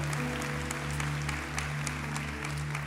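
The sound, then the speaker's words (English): A church audience claps steadily to welcome special guests Pastors Herbert and Tiffany Cooper, a dense wash of overlapping hand claps with scattered sharper smacks, over a sustained low organ-like hum running underneath throughout. “Come on, church. You're not clapping loud enough because some of you don't know what you're about to receive today.”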